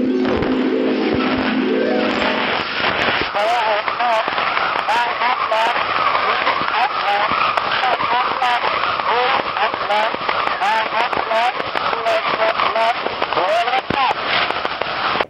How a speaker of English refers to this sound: Listen to it now as …'s talking clock speaks to you from the past from 1878.